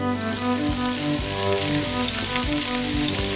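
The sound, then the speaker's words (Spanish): Onion sizzling in olive oil in a pot as a cooking base: a steady, dense crackling hiss with scattered small pops, fairly loud throughout, over a faint steady humming tone and no talking. “el de la cebolla es un. Es una banda aparte.”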